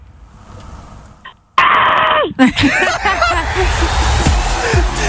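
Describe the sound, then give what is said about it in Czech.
A voice loudly imitates creaking doors on request, with strained, wavering squeaks that slide downward in pitch, then breaks into laughter with others laughing along. “A předveď nám zvuk vrzajících dveří.”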